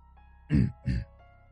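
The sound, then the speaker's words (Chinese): Two short, gruff throat-clearing coughs in quick succession, low and rough, each lasting a fraction of a second, with quiet before and after and no speech, as an old blind fortune teller calmly coughs twice to clear his throat before speaking. “哪知啊，瞎半仙一脸平静，咳嗽两声，清清嗓子说道”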